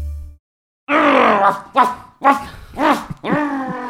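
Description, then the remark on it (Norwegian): Dogs bark in a quick run of loud, yelping barks, about five in a row with brief gaps, after a moment of quiet at the start. “Ah, der var det hunden. Der var de hundene.”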